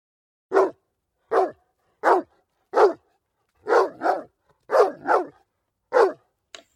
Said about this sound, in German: hört man ein lautes Bellen. Es kommt immer näher.